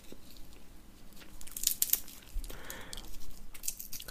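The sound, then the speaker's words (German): Crackling and crunching of peanuts in their shells being cracked open, with a few sharp snaps and rustling bursts at irregular intervals and no voices. “Trotzdem, ich mag das, dieses Knusper hier vom, von der Erdnuss.”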